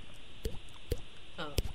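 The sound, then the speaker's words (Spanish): A voice imitates falling water drops with three sharp mouth pops spaced apart, the last preceded by a brief rising, gurgly vocal tone. The sounds are fairly soft. “el talento del Diablito es hacer. va? me que, tienen aquí, Y hacer que caiga una gota de agua.”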